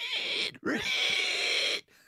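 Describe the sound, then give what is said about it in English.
A person voices a feral pig's grunting and squealing, two long, loud, nasal bursts with a short gap between them, then a brief grunt at the end. “I can do a feral pig.”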